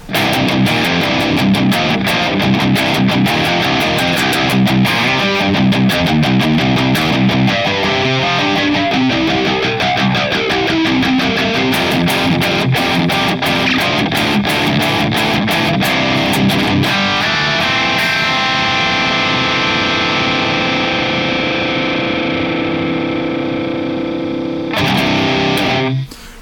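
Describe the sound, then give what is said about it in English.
Loud electric guitar through a Plasma Kraken pedal set as a gated distortion on the brink of fuzz, run into a Boss IR-200: choppy chugging riffs with abrupt cutoffs, then a long sustained ringing chord that holds before a final burst. Bright, clear and crisp, less bass-heavy. No voices. “It is basically a gated distortion right on the brink of fuzz. Very clear, very crisp.”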